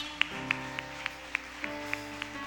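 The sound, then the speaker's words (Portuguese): Steady rhythmic clapping, about eight evenly spaced claps in a couple of seconds, as if a crowd claps in unison to applaud the name of the Lord, over a soft, sustained musical drone, with reverberation. “Pode aplaudir o nome do Senhor, meus irmãos.”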